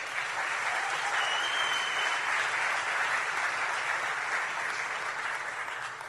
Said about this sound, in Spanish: Yo creo que nos merecemos un aplauso por eso, ¿no creen?